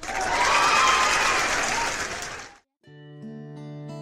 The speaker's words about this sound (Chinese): 这是上海话的版本，咱们是先鼓掌后欣赏。